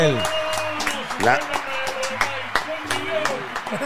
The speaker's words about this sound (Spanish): un aplauso al rey de los covers